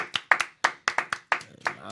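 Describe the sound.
A short burst of applause for a producer on a program: about nine sharp, bright hand claps in a quick, slightly uneven rhythm, fairly loud, with a voice starting up underneath as the clapping ends.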